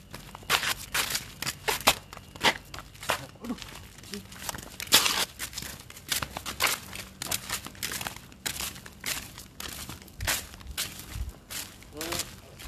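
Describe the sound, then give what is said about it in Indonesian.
Crunchy footsteps walking steadily, each step a sharp, crackling scuff in an uneven rhythm, with no one talking, like an ASMR recording of someone strolling over gravel or debris. “Yang berapa langkah kaki ya tidak ada yang berbicara ya bayangin aja ASMR jalan kaki”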